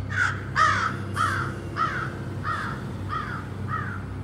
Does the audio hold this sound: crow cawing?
yes